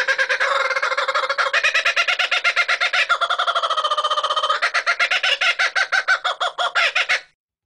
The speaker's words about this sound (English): Like chickadee, the name kookaburra is onomatopoeic. It's derived from the world famous cackle made by these birds.